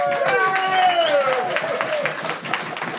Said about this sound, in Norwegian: Vi klapper for det lille, som vi også elsker.